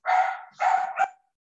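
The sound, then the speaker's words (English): A pet dog at home barks twice in quick succession, fairly loud, the second bark trailing into a short yelp, with no talking underneath. “Did you accidentally press your dog dog barking sound effect button?”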